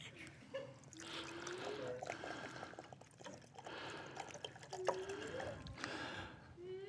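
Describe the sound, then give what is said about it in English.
Water pours and trickles steadily for several seconds, with a bubbly, splashing texture and brief rising gurgles as the stream fills a container, moderately loud. “That is water.”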